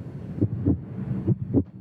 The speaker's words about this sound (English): And for me, it's the ceiling fan mm. or the beat of my heart mm-hmm.